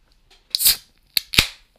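A can or bottle of Winter Ale beer cracks open with a sharp pop and brief fizzing hiss, followed by two more quick snapping clicks, the last one trailing into a short hiss. No talking.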